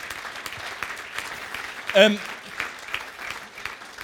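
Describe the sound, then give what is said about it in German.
An audience claps steadily for a church member newly appointed to lead a college, a dense, even wash of many hands at moderate volume, while a single voice briefly murmurs partway through. “auch wenn du ihn nicht kennst, gib ihm mal einen großartigen Applaus.”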